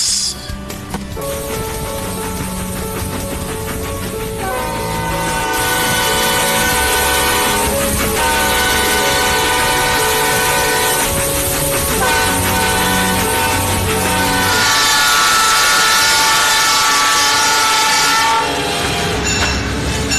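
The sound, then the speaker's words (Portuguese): A train rumbles past, loud and steady, its horn blaring in long sustained blasts over the clatter of the wheels, with no one speaking. “Ver mais um pouquinho sobre trens.”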